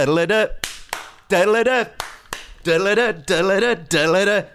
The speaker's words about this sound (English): So what's this then? Is this new? Is this a new theme tune that you've brought into the bar? I love it. That, that is the theme tune, the Addams Family theme tune.